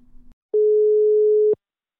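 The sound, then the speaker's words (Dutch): A telephone dial tone sounds as a call is being placed: a single steady, loud beep lasting about a second, with small clicks at its start and end, after a brief low hum. “Het is tijd om even te bellen”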